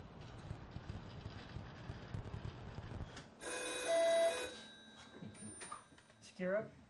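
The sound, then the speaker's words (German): A red hotline telephone in a training centre rings in one loud, bright burst lasting about a second, following a stretch of low wind-like rumble, with a faint voice briefly audible afterward. “Im Trainingszentrum haben sie ein rotes Telefon, so wie man es aus Hollywood-Streifen kennt.”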